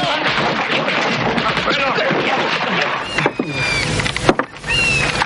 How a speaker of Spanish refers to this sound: Pero... Dios mío, ¿qué es eso? Señor, es el rifle de asalto AK-47. El arma preferida de nuestro enemigo. Hace un ruido muy característico cuando la disparan, señor.